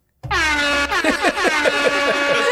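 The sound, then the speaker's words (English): A loud, brassy Jamaican air horn sound effect blares alone, starting as one long sustained blast and then breaking into rapid pulsing, wobbling toots, like the classic reggae dancehall horn effect. “you get some claps, maybe, or Jamaican air horn.”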